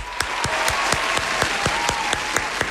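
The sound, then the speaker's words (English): A canned applause sound effect from an applause meter: a dense, steady wash of clapping with sharper individual claps popping out at a regular beat, holding an even loudness throughout with no voices. “Uh, hey, Noah, get that applause meter ready.”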